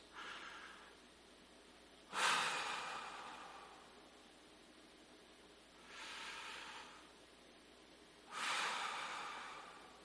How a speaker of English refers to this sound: You shut the door and you walk over to this place and you stand there for a moment and you just take several deep breaths.